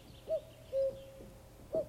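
A common cuckoo calls with soft, hollow hooting notes, three clear tones spaced unevenly over two seconds, moderately loud against a quiet outdoor background with no voices.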